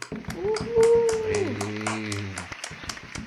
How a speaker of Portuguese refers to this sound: Salva de palmas aí para elas, por favor.